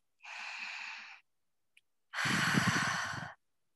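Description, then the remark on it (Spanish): A deep, airy inhale through the nose lasting about a second, then a brief pause and a louder, fuller breath out through the mouth, as part of a calming breathing technique, with no talking. “Hay ciertas, hay varias técnicas de respiración, pero lo que tienen que saber que inhalar profundamente por la nariz”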